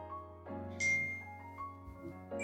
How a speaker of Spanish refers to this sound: acaba de llegar un mensaje violentamente al iPhone del Ilu PSQ. ¿Qué celular el que tiene el Ilu PSQ? Que suena